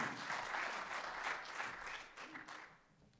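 An audience claps steadily, a dense crackle of many hands that holds strong before thinning and fading out toward the end. No one speaks over it.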